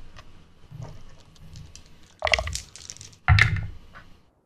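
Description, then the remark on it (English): Dice clatter across a tabletop in two short, loud rattling bursts as players make their rolls, preceded by a few softer clicks and taps, with no talking. “Last leg of the trip. Everybody make your rolls.”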